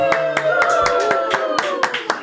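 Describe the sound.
Steady, fairly regular audience clapping after a rhymed toast, moderately loud, with sustained voices or cheering running underneath for the whole stretch.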